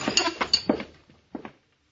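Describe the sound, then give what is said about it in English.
Coffee being poured into a cup, heard as a few bright china clinks and short splashy bursts over about a second, then a final pair of clinks before it goes quiet. No one speaks. “I pour you some more coffee.”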